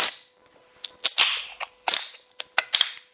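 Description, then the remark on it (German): A beer bottle being pried open with an opener, which breaks: a string of sharp metallic clicks and snaps, irregularly spaced, some trailing into brief hissy fizz, with no talking. “Oh, ich habe den Öffner abgebrochen.”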